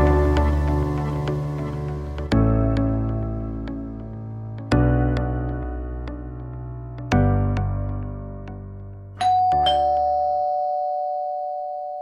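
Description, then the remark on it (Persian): An intercom doorbell at a family home rings with a loud electronic melody of five evenly spaced chiming notes, then finishes on a short steady buzzing tone; the mother opens the door with the intercom. No one speaks. “به محض اینکه مامان با آیفون در رو باز کرد”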